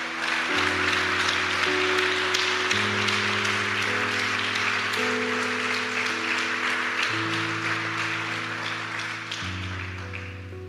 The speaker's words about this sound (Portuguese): Pode aplaudir o Senhor porque Ele é Deus.